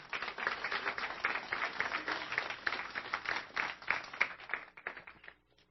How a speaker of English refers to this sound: Can you, we give them a round of applause?